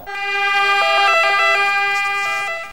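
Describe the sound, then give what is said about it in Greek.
An ambulance siren wails loudly, its tones stepping between pitches in a steady alternating pattern over faint road rumble, with no one speaking. “Ήρθα το ασθενοφόρο πράγματι μετά από λίγη ώρα”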